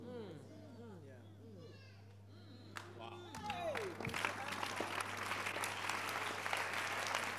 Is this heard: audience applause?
yes